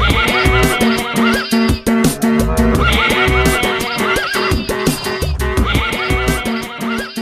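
Repeated horse whinnies, with their wavering rise and fall, are layered over a loud, steady rhythmic beat and dense music in a chorale of goats, cows and horses, looping through the track without any talking.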